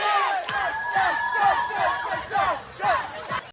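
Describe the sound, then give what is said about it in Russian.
A crowd of teenage school students, boys and girls in costumes, loudly shouts and chants together, a dense, overlapping roar of yelling that stays energetic throughout, with rising and falling cries cutting through. “Они громко скандировали, танцевали, орали.”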